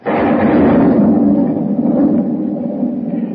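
Loud thunder rolls in a deep, continuous rumble as it begins to rain, holding steady for a few seconds before easing slightly, with no voices over it.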